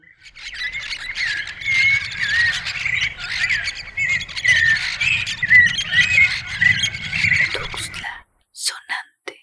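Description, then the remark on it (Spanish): A dense flock of parrots and parakeets chatters continuously, overlapping squawks, chirps and raspy calls filling about eight seconds before stopping abruptly, followed by a couple of brief sharp sounds. “¿Has escuchado el parloteo de loros y cotorras al amanecer?”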